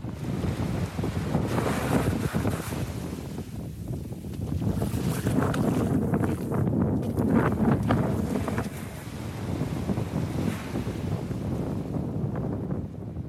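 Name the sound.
ocean surf and wind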